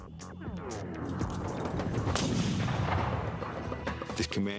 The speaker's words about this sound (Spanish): Los comanches hicieron que disparara su rifle, pero esta vez Hayes no quedó indefenso, ya que él disponía de un Colt Patterson